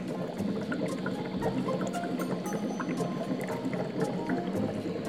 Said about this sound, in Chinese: 蛋在水里啊，啪啪的滚动，蒸汽直冒。